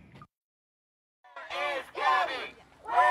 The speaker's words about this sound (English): And out here, you hear their continued chants asking, Where is Gabby?